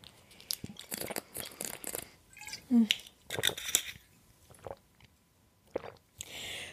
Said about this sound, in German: Prost, ich muss mal kurz einen Schluck trinken.